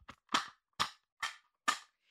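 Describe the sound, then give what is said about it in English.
An imitation of pots and pans being banged downstairs in a kitchen: four loud, sharp bangs in a steady rhythm, each cutting off quickly, with no talking. “And I'm going to hear her the entire time I'm trying to take an adult nap, just banging pots and pans downstairs like this, just literally as loud as humanly possible.”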